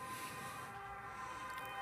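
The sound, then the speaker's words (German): Emergency vehicle sirens wail steadily, their tones held over a low background rumble and hiss, continuing throughout without any talking. “Hoffentlich nichts Schlimmes passiert, aber so viel wie hier gerade an äh, Martins, Martins Hörner, sagt man das? Ja. Äh, los Sirenen.”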